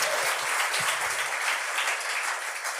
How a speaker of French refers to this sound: Euh, oui, vous pouvez l'applaudir.